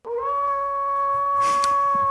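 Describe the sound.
A person imitates a wolf howl, one long, steady, wavering note that rises briefly at the start and holds loud for about two seconds, with a faint rustle partway through.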